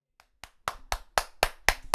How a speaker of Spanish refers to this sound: Inmediatamente hubo otro batir de palmas